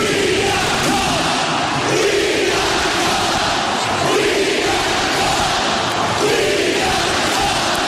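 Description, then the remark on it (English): A large crowd at Ballpark Village in St. Louis roars and cheers continuously, a dense wall of shouting voices that swells in loose waves without letting up, loud throughout. “This was the sound last night from Ballpark Village in St. Louis.”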